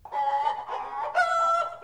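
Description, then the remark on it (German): Three hens cluck and cackle in three drawn-out, nasal bursts, fairly loud, with no talking over them. “Was machen eigentlich die drei Hühner?”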